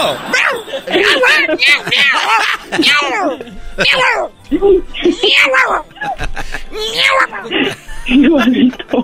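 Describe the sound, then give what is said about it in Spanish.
A loud voice mimics a cat and a dog at once, a steady run of rising and falling meow-like wails mixed with yelping bark sounds, with chuckles breaking in. “¿Puedes hacer el, el, el ruido de un gato y un perro a la vez?”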